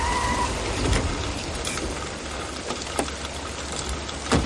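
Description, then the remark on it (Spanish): Heavy rain pours steadily outside a house while a car's engine rumbles low underneath as it pulls up and stops, with a few sharp drips and splashes standing out. No one speaks. “Afuera, bajo el fuerte chaparrón, se detiene el coche de White.”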